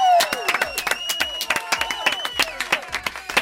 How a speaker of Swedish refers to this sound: Applåder!